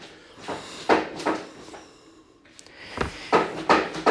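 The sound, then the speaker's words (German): A cat batting a dry-food puzzle toy, making irregular clattering, rattling bursts of kibble shaking inside plastic, with short pauses between the knocks and no voices. “Ja, meine Katze spielt wieder mit dem Trockenfutterteil.”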